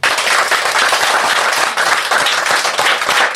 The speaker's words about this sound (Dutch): Nou, dan wil ik dat jullie zo hard mogelijk gaan klappen zoals je kunt, zodat het overkomt in de podcast voor Dusan en de jaren die hij ons heeft gebracht bij Ajax. Alsjeblieft.